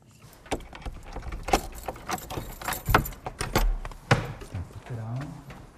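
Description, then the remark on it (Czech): Keys jangle and scrape amid a run of sharp metallic clicks and clanks as the second door and a security grille of the Church of the Holy Trinity in Zdoňov are unlocked and opened, with a brief murmur of voice near the end. “Otevírá druhé dveře, bezpečnostní mříž.”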